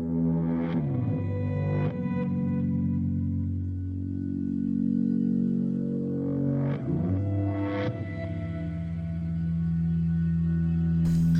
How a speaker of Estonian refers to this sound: kuulake seda soundtrack'i, see on väga suur film